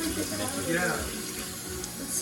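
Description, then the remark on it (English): Cold water runs steadily from a faucet, a continuous hissing splash filling the short recording at moderate loudness, with faint voices murmuring underneath. “We like to waste water here.”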